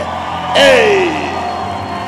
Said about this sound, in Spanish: De nuevo aplauso y grite.